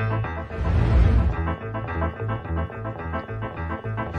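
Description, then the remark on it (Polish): A short song is played on air, steady with a strong, pulsing bass beat and dense layered instruments, fairly loud, with a brief swell near the start and no talking over it. “A po piosence jeszcze słyszymy się na chwilę. To jest krótka piosenka, ale Krótka, dobra.”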